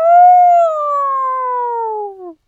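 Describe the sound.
In a read-aloud story, a voice imitates a lion's roar, the lion's loudest roar ever, an "Oh!" at Mr. Ma Bin. It is one loud, drawn-out wail of about two seconds, steady and fairly high-pitched at first, then sliding slowly downward before cutting off.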